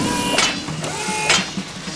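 Mechanical robot arms in motion: a steady whirring hum with ratcheting, gear-like clicks, broken by two sharp hissing bursts, one early and one later. Fairly loud, continuous, with no voices.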